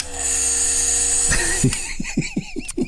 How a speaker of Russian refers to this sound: Дело в том, что когда у тебя рот занят ингалятором, я даже могу вам показать, как, как эта штука работает. Давайте послушаем все вместе. прекрасные звуки.